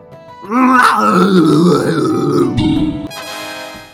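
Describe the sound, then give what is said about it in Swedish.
A man lets out a long, deep straining roar, loud, held for about two and a half seconds before trailing off into a rough groan. “Med ett avgrundsvrål så sprang han fram till den fjättrade Mini Crowbar och ryckte med en rekorddelig rörelse upp den ur sin tusenåriga vila.”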